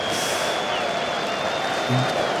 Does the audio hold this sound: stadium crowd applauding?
yes